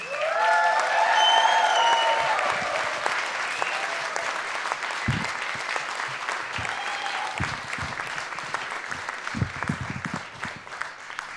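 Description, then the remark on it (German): A concert audience claps loudly and steadily in dense applause for all of the evening's performing artists, with whistles and cheers ringing out early on, then the clapping continues at a slightly lower level with a few scattered louder claps. “Und dafür möchte ich bitte nochmal einen richtig fetten Applaus für alle Künstler.”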